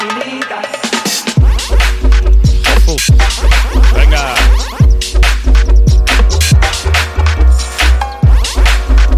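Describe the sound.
A bakalao-style dance remix plays loud, with a heavy, steady bass drone and a fast, pounding beat of sharp electronic hits; a voice briefly shouts over it.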